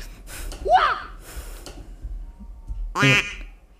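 Two loud, nasal duck quacks from a sound effect, one early and one near the end, separated by a quiet stretch with faint background noise.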